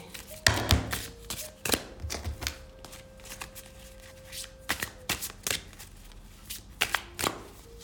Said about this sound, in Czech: Uh, když se dívám na budoucnost mezi vama dvěma, já na to vytáhnu ještě další karty.